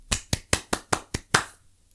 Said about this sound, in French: Et vraiment, vous méritez ces applaudissements. Donc je vous applaudis encore une fois.